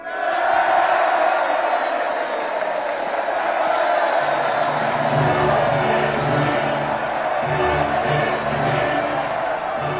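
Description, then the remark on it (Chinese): A large crowd stands up and cheers a verdict, roaring loudly and continuously, a dense wall of many voices that holds steady throughout, with a low droning tone joining in about halfway. “话音刚落，众人纷纷站起来欢呼这一大快人心的判决。”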